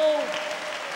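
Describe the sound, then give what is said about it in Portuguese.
An audience raises both hands and applauds to God together, a dense, steady wash of many hands clapping at once, with a brief sustained tone fading out early beneath it. “Quem quer que Deus te use, levante as duas mãos e aplauda a Ele de toda a tua vida, de todo o teu coração.”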